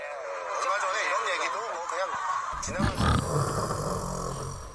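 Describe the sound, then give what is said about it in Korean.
A voice loudly imitates a father's heavy snoring: wavering, groaning snores give way to harsh, rumbling snorts in the second half, continuous throughout. “아, 아버지 코 고는 소리 때문에 하나도 안 들려.”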